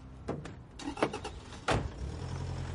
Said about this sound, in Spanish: Stoddart sube al coche.